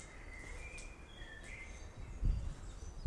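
Birds sing softly outdoors in spring, thin whistles and chirps drifting over a quiet background, with a brief low rumble of wind gusts toward the end.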